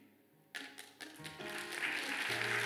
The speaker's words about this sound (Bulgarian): Браво! Браво на тази жена, която пляска. О, ако ръкопляскаш, ръкопляскай, като че това е твоето сърце.